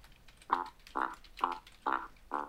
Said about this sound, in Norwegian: Den var ikke så lang, den tuba-jinglen.